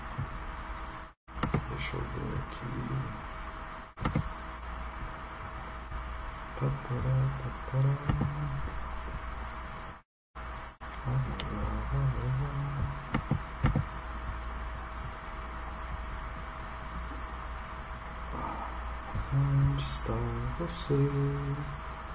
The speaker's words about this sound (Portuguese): Desculpa, galera, que vocês estão ouvindo aí o barulho do do ventilador, da ventoinha, do, do microfone. E eu percebi que isso aí tá fazendo um barulho sofrível para vocês.